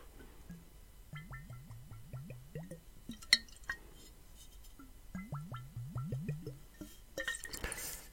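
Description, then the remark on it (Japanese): Bacardi gold rum from Santiago, Cuba, glugs from a bottle into a glass for a rum and cola (Cuba Libre) in two runs of quick, rhythmic gurgles, each gulp rising slightly in pitch, followed by a short airy hiss at the end. No one speaks. “こういうリキッドサウンド好きですね。”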